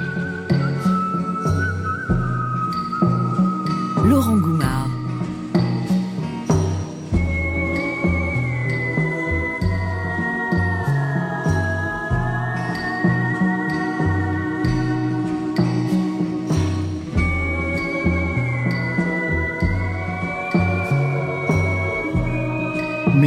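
A clear whistled melody floats above a full music track, holding long, smooth high notes that glide gently between pitches over a steady beat and warm instrumental backing.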